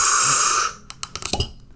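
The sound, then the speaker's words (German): A cork eases out of a bottle with a soft, steady hiss of escaping gas rather than a loud pop, followed by a few faint clicks and light taps. No one speaks. “Aber ein Korken hat er. Oh, oh, oh, oh, wir müssen nicht schrauben, oh wie schön.”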